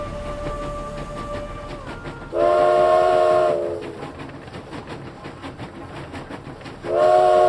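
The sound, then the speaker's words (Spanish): A narrow-gauge train rumbles along the rails through the heights of the Sacred Valley with steady clattering, and two loud, sustained horn blasts sound, one near the start and another near the end. “Por este chucu, chucu, es el, sonido del tren de vía estrecha, no, estrechísima, que va recorriendo todas las alturas del Valle Sagrado”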